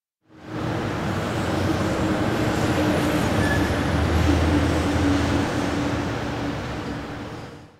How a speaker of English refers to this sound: I noticed all the traffic sound that my building is like 50 feet from. So I ran in, got my mic, and recorded that for you. So here's a recording of the traffic that's going by my office building. And for future reference, this is about 77 decibels.